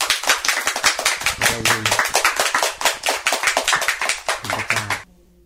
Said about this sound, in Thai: ให้เราตบมือให้พระเจ้าดีไหมครับ